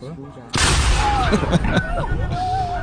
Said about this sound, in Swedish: och där eh, avfyrades kanonen.